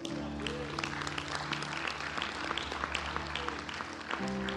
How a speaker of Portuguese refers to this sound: Aplaude a Deus por isso.